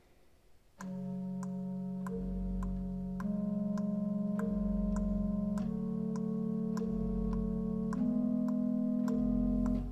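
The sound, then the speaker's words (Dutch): Slow, sustained organ chords in an adagio from variations by Delft organist and composer Jan J. van den Berg on hymn 511, 'Door goede machten trouw en stil omgeven', with a steady, regular ticking pattern of sharp short notes imitating a clock, played alone at moderate volume with gradually shifting harmonies. “In een sfeervol adagio laat hij als het ware de klok tikken.”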